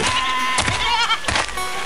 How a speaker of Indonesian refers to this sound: Kambing-kambing siapa itu ya? Oh iya, itu sepertinya para gembala.